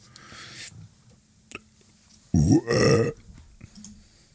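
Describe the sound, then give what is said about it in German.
A loud burp erupts after a quiet stretch, a guttural belch lasting under a second with a brief break in the middle, followed by low background noise. “Entschuldigung für den Rülpser.”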